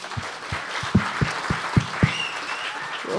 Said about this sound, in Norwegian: Så jeg syns vi skal gi dere selv en god applaus. Det synes jeg skal gjøre.